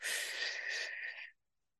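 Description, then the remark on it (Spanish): A long, deliberately loud, exaggerated inhale drawn in through the mouth as part of box breathing, a steady airy hiss lasting over a second before stopping abruptly, with no talking. “imagínense un cuadrito, entonces subes una de las paredes del cuadrito y son cuatro respiraciones. disculpen que lo voy a tener que exagerar, pero la mayoría nos escuchan solamente.”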